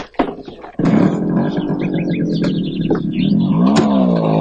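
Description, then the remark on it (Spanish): A journalist's motorcycle roars to life after a brief quiet start, staying loud, then revs higher as it pulls away to follow a taxi, with faint bird chirps in the background. “Se marcha en la moto de uno de los periodistas y sigue al taxi donde va al monte.”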